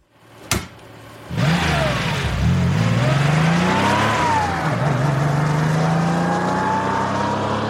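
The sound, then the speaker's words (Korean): A car door shuts with a sharp thud as a person gets out, then the car's engine roars to life and revs hard as the car pulls away, its pitch climbing and falling through gear changes, loud and sustained. “당신의 차는 굉음을 내며 출발했다.”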